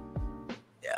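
A single quick sneeze, a brief throaty catch followed by a sharp breathy burst, with a voice starting to speak right after.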